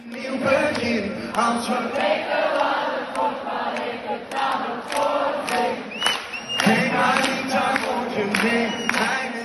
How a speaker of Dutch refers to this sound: Maar dan gebeurde er eigenlijk iets heel speciaals. Eh, op een bepaald moment, de song was gedaan, de laatste noot was gespeeld en het publiek dat bleef maar doorzingen.